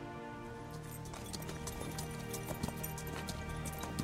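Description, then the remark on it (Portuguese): Horse hooves clip-clop at a steady trotting rhythm as a rider departs on horseback along a trail, over a constant low hum and tonal background, with no one speaking. “E a irmã Garaeli vai partindo usando o cavalo do Davi, pegando a trilha do Javali de volta pra Fandalin.”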